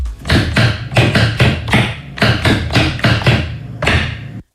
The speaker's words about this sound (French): T'as reconnu le bruit ou pas Non, c'est un mec qui tape eh sur ben, son bureau. C'est un bruit de clavier. Un youtubeur a en ah. effet eu l'idée de créer le clavier le plus bruyant possible.